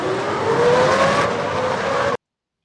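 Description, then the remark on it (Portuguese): A Formula 1 car roars loudly, its engine pitch climbing steadily as it accelerates along the track at Silverstone, before the sound cuts off abruptly. No one speaks. “E ele tá postando ah. alguns vídeos do, do carro rodando.”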